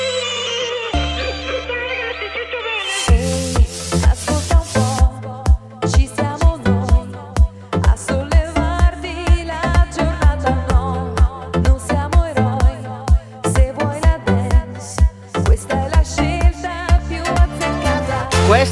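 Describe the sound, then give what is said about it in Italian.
A radio pre-theme jingle: sustained synth chords swell briefly, then a punchy electronic beat drops in and drives on steadily, loud and upfront with no voices. “Adesso mentre vai il presigla ci giochiamo a dadi chi becca il drop della esatto, sigla.”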